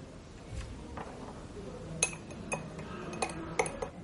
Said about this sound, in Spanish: César remueve el café.